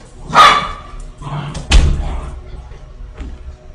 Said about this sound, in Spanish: Perdón, fui a pasar a los perrines porque a veces pasan perros y se alocan épicamente, güey.